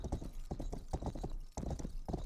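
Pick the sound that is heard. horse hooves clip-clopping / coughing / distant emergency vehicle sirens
horse hooves clip-clopping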